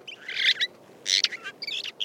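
A phainopepla sings a short, burbling song of warbled and chattering phrases in quick bursts, clear, with no other sounds around it.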